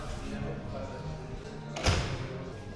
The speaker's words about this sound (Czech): Otevírám dveře, vítejte, jdeme dál.